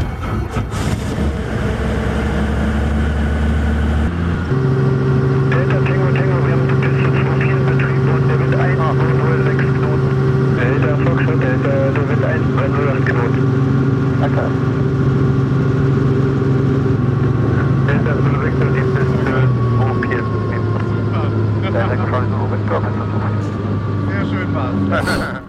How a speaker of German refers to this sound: wir setzen uns jetzt in den Flieger und gehen mal eine Runde fliegen. Los geht's.